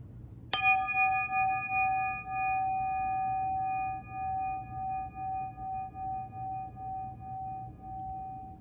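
A small meditation bell is struck once and rings out with a clear, bright tone, its pure resonance slowly shimmering and fading over several seconds above a soft, low background hum.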